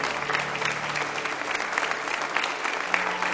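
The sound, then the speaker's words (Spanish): An audience applauds steadily as an offering of applause to the Lord during a church service, a dense crackle of many hands clapping at an even level throughout, with no pauses and no voices standing out. “¿Por qué no le das una ofrenda de palmas al Señor?”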